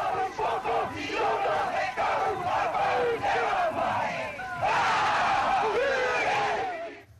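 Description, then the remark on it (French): A crowd of about 10,000 Maori in traditional costume chants and shouts a haka in unison, a loud, rhythmic war cry with many voices rising together in forceful bursts, sustained and growing more intense toward the end, honouring visiting Queen Elizabeth II and the Duke of Edinburgh at Waitangi, New Zealand, in 1963. “À Waitangi, première étape de leur séjour en Nouvelle-Zélande, la reine Elisabeth et le duc d'Édimbourg se sont fait présenter la haute société locale avant d'entendre 10 000 Maoris en costume traditionnel exprimer bruyamment leur allégresse.”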